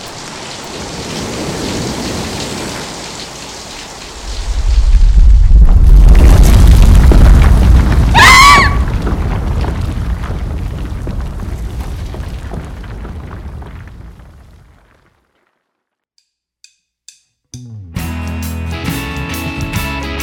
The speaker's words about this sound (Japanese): ああびっくりしたすごい雷だね